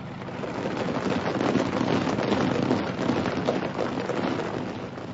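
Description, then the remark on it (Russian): A steady, loud mechanical roar with a rapid, chopping texture as two helicopters pass overhead across the sky of the Mayankum steppe. The noise stays constant throughout, with no voices. “Два вертолета пересекли небо Маянкума, как рыбы, не оставляющие следов в воде.”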